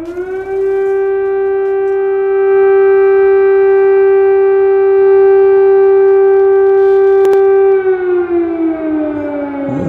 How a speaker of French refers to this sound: Les Ukrainiens se sont fait réveiller très tôt ce matin avec le son des sirènes de raids antiaériens. On peut écouter.